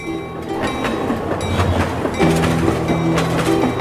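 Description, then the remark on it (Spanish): A train rumbles past, its wheels clattering over the rail joints in a steady rhythmic clickety-clack, with sustained low mechanical drone and metallic ringing tones layered throughout. “Trenes, trenes y trenes.”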